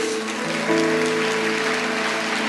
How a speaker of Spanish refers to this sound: Da un aplauso a nuestro Dios.